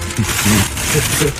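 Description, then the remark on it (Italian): A boat motoring into a harbour: a steady low engine drone with a broad wash of water and wind noise, loud and continuous throughout the short stretch. “Ma che cazzo, ma se me lo dici in onda che è una barca che entra nel porto si capisce.”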